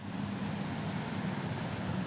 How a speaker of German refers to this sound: Was ihr da hört, ist ein Motorboot. Das ist scheinbar die Wasserschutzpolizei, die hier gerade vorbeifährt.